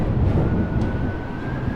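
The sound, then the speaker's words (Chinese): Strong wind suddenly gusts over the sea, rocking a boat from side to side, roaring in a dense, low rumble that holds steady, with a thin whistling tone running faintly above it. No voices. “然而，在这个时候，突然刮起了一阵阵的大风，吹得船身左右摇晃着。”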